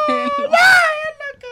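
A child cries in a short, high-pitched whimper that swells into a brief wail and trails off into softer sobbing sounds.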